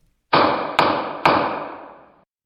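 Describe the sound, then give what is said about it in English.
A gavel bangs three times in quick succession, each strike sharp and loud, with a reverberant tail that fades out after the last blow. No one speaks. “This is the sound of me saying this is the sound of a gavel.”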